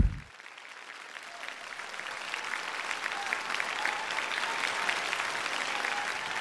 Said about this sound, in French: Les applaudissements se prolongent pendant six minutes. sept minutes. huit minutes.